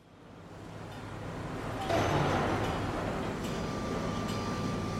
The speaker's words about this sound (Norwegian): Det her er lyden av tungindustri. Store fabrikker og smelteverk der man produserer stål, jern og sement.